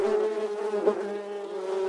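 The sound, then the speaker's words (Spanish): A steady, dense buzzing of many bees, continuous with a slight swell midway, with no voices present. “El zumbido de abejas”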